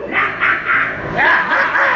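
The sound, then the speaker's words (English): A person imitates an animal growl, a string of rough, pulsing vocal bursts that rise and fall in quick succession for about two seconds. “Growl.”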